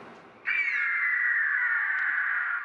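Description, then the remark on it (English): A single loud, harsh screech of a gigantic cockatrice bursts in after a brief quiet moment and holds steady for about two seconds, shrill and raspy, alone with no talking. “Herr Dr. Sparlago has made himself into a gigantic cockatrice”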